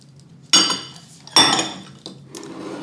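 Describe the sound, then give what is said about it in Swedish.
Two sharp ceramic clatters of plates being moved and stacked as they are cleared away, about a second apart, followed by softer clinks and shuffling, with no talking. “Nu ska vi, se ska vi ta bort lite fat ja.”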